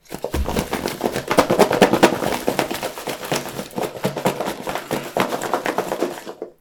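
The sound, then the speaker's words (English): Folded papers being shaken in a hat: a steady, busy rustling and rattling with many quick crackly taps, moderately loud, lasting several seconds with no talking. “We'll get the old shuffle. You're gonna hear the magic happen, guys. Give it a shake.”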